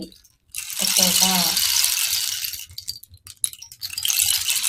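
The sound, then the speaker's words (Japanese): A bamboo rain stick tips and pours a steady, hissing cascade of tiny rattling beads that sounds like running water, fairly loud. A brief voice murmurs early on. “palo de lluvia”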